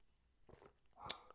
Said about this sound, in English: Now, give me a quick second. I'm going to take a sip of my tea.